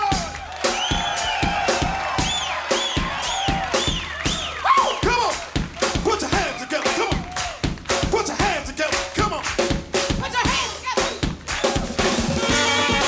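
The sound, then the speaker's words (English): A crowd claps and cheers loudly and steadily for a drummer, with rising whoops and whistles cutting through the dense patter of applause throughout. “Once again, give a big round of applause to the drummer,”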